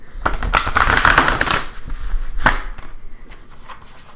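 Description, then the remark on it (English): A deck of playing cards is riffled in a quick, fluttering burst of crisp snaps, followed by a sharp bridging clack and a few softer, scattered taps as the cards settle. Fairly loud, no voices. “I'll give it a couple of shuffles here. I'm actually getting a lot better at shuffling.”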